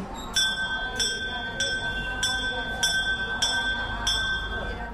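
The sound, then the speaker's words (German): A small bell at a Hindu shrine is struck on entering, about seven times in a steady, even rhythm, each bright metallic ring sustaining into the next over a low background rumble and murmur. “Wer den Schrein betritt, schlägt zunächst eine Glocke.”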